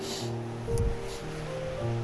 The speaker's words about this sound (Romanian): orică râul ăsta e, îmi dă și mirosul de, de pădure, îmi dă așa o senzație.